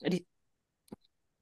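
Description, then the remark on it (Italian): A single sharp, abrupt hiccup, followed after a short silence by a brief soft click. No talking. “scusate un singhiozzo.”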